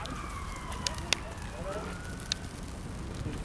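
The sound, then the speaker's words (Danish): A campfire with freshly added firewood crackles at Sundholm after sunset in a light drizzle, with a few sharp pops over a steady hiss and low rumble, plus a faint thin whistle, like damp wood steaming. “Hos Kenneth er der kommet nyt brænde på bålet, det småregner stadig”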